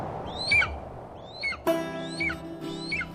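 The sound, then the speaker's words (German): Four high, downward-sweeping cries of an eagle calling repeat at steady intervals over a low rumble of strong steppe wind, with a sustained tonal drone entering partway through. “Sie haben was jetzt mit der Steppe, da gibt es viel Wind, ein Adler, der ruft”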